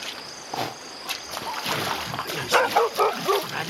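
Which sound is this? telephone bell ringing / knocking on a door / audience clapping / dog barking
dog barking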